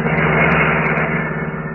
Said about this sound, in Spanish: Por el desolado camino de la estación del ferrocarril al pueblo, avanzaba velozmente el maltrecho auto Sport guiado por Calimán.